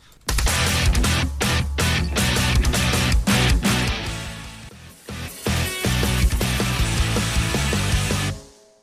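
A loud, dense rock song with distorted guitars and heavy drums, punctuated by sharp staccato hits and brief breaks, building through the passage before cutting off abruptly; no one speaks.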